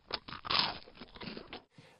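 Crunchy human chewing with a steady rhythm of about four bites a second, loudest in the middle, then a brief pause before a softer, quieter chew at the end. No one speaks.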